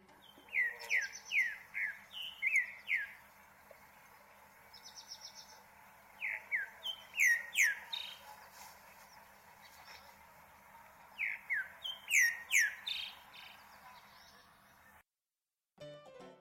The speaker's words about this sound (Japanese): 今日ご紹介するウガンダの鳥はオリーブツグミです